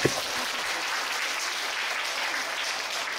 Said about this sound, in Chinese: 嗯，鼓掌。